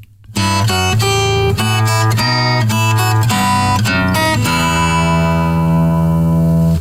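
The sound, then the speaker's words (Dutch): A solo guitar plays a melody over its own bass line, bright plucked notes moving above a steady low part, ending on a sustained ringing chord. “Maar daar zit ook een baslijntje bij. Het is natuurlijk wat langer, maar ik hou het even kort. Als je dat samen speelt, tegelijkertijd, dan krijg je dit.”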